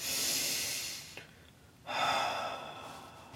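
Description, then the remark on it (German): A slow, deliberate breath drawn in with a soft airy hiss, a brief pause, then a clear, fuller exhale, fairly quiet, with no talking; a calm breathing-exercise demonstration, simply breathing in and out rather than sighing. “Also kein Seufzen, das wäre natürlich kontraproduktiv, sondern einfach, ganz schlicht, einmal ein.”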